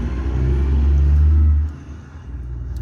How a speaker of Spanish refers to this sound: hay, una moto estacionándose aquí al lado, así que probablemente no se escuche un culo.